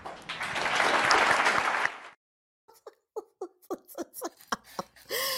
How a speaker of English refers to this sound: you heard that delayed applause. Didn't nobody want to clap for that shit.